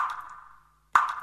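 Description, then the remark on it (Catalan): Water drips from a leaking shower, two separate drops about a second apart, each a bright resonant plink that rings briefly before fading. No one is speaking. “Una dutxa que perd aigua sona així.”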